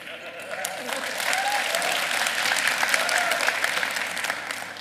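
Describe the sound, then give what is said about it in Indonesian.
An audience breaks into sustained applause during a sermon, a dense crackle of many hands clapping steadily throughout, with scattered voices and faint murmuring mixed in beneath the clapping. “Ini sih tepuk tangan udah tahu artinya apa nggak usah khutbah lagi kalau gitu.”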